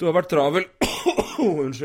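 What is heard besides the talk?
cough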